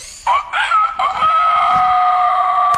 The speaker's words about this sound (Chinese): 啊，那公鸡都叫了一个早晨了。 你说的没错， 我再也受不了了。我去找农夫佩克斯，看能不能让他不叫了。